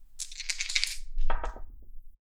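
dice being rolled

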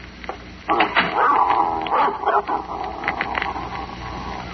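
dog growling and barking

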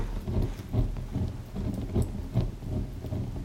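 fire crackling

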